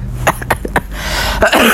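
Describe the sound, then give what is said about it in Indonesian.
A few sharp coughs burst out in quick succession, fairly loud, followed by a rougher throat-clearing sound near the end; no one speaks. “Beneran batuk deh”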